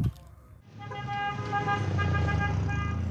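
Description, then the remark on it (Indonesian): A car horn blares in one long, steady, loud blast in busy street traffic, starting after a brief pause, with low engine and traffic rumble underneath. “Aduh, jangan lari. Banyak mobil itu.”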